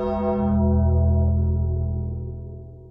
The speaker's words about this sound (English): And remember, when the bell tolls